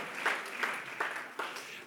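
A short burst of audience applause for a woman addressed as 'our sister': steady dense clapping with a few sharper accents standing out, moderately loud and with no voices over it.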